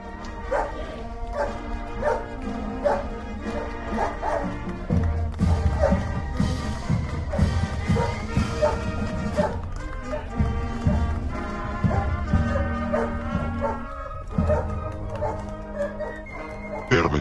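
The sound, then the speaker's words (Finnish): A golden retriever barks and whimpers in a voice message, a steady run of yelps, woofs and whiny cries, loud and continuous with barely a pause throughout. “Ja musta tuntuu, että me voitaisiin nyt kuunnella tämän kadonneen kultaisen noutajan ääniviesti, joka on saapunut meille tänne.”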